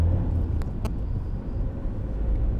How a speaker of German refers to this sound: Toller Verkehr heute.